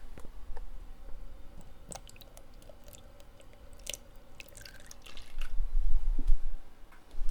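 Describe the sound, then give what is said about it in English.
Two fluid ounces of milk is poured into a bowl for a recipe, heard as scattered wet splashes, drips and soft squishy clicks over a low rumble that swells toward the end. No one speaks. “We're going to go for two fluid ounces. we have decided. So we're just pouring that in.”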